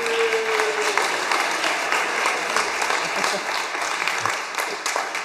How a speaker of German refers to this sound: Auch hier nochmal einen kurzen Applaus, bitteschön.